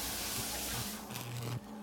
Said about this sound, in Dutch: Hij neemt alleen nog even een douche. Hij stapt de badkuip in, draait de kraan open en laat het water warm worden.